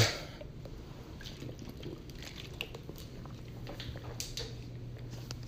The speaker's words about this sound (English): Need to take a drink of this water.